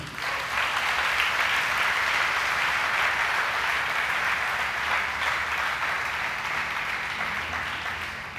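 Sustained applause from a crowd, a dense steady wash of many hands clapping at once, fairly loud and even throughout, fading only slightly toward the end, with no voices standing out.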